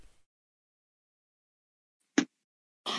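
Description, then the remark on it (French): After a stretch of near silence, a single sharp, explosive sneeze bursts out, followed moments later by another brief, breathy noise. “Alors, ok, à tes souhaits.”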